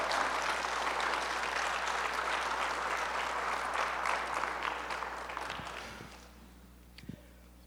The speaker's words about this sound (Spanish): Aplaudan porque le están aplaudiendo al Señor.